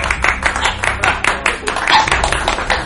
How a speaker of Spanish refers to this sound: un aplauso así,